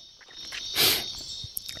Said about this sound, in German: Die Grillen kann ich übrigens nicht ausschalten, genau.